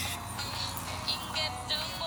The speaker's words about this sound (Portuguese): Mais uma vez contextualizando, eu estou caminhando, vocês devem estar ouvindo barulho externo, né? Carros e natureza